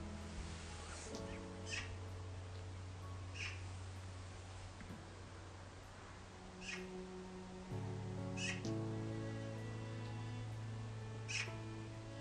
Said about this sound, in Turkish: Kuşların sesi yardımcı olsun bize.